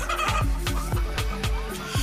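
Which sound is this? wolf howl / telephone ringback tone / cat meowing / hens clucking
hens clucking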